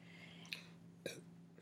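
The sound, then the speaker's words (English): Two short, soft belches about half a second apart after drinking a lot of soda, the second slightly longer with a low gulping tail; no one talks. “Anyway, that's um, that's my feelings on that belch.”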